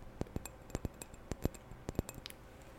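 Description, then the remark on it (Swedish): Fingers tap lightly on a hard surface in quick, uneven bursts, a dozen or so crisp clicky strikes, fairly quiet, with no voice present. “Hör ni tappingen?”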